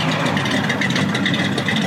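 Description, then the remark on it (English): A muscle car engine idles steadily, a continuous deep rumble with a rough, throaty texture that holds at an even loudness throughout, with no voices. “Listen to that baby purr.”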